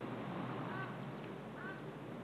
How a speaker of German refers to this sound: Die Krähe.